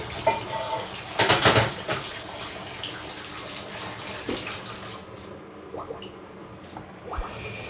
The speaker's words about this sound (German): So, schnell die Schüssel auswaschen.